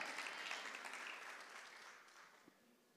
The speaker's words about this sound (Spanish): Dale un aplauso al Señor.